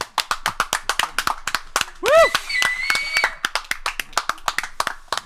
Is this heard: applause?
yes